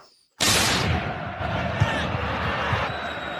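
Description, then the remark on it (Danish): A short transition stinger bursts in abruptly after a moment of silence, then stays as a loud, dense wash of crowd-like noise with scattered thumping hits. “Og efter den her breaker, så uh, vender vi uh, snyd imod den lidt større turnering, hvor vi igen igen ser Mourinho i finale-stolen.”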